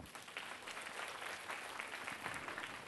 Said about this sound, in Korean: 우리 총무단 또 우리 의료팀 뭐 여러 가지 찬양팀 모든 분들에게 다시 한번 감사의 박수.